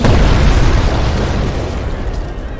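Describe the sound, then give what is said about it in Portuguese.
A door explodes in a loud, deep blast that bursts at once and rumbles on with a crackling, debris-like roar, slowly fading over a few seconds, with no voices. “a porta explode e entra quatro elfos nus, completamente sujos de água imunda, flutuando com magia e muito furiosos.”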